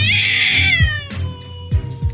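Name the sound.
cat meowing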